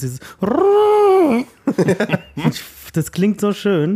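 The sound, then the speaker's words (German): A voice imitates the old-fashioned car horn of cars from around 1900 with one long, loud, rising-then-falling honk, followed by laughter and talking. “Das ist dieser, dieser, dieser, dieser alte, ähm, dieser alte Alarm von diesen 1900 Autos.”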